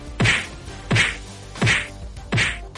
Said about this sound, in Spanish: estamos en el momento bofetada, lagar al impuesto de Sánchez.